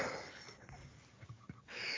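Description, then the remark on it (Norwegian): Quiet sniffling with breathy intakes at the start and end, broken by a few short, rough throat-clearing grunts and coughs in the middle, heard over a studio monitor. No one speaks. “Hvem er det som snufser og harker og hoster i monitor her?”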